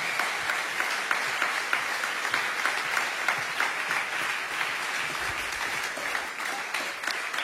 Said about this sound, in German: Alright, vielen Dank nochmal. Applaus euch beiden. Mega, mega cool. Sehr geil.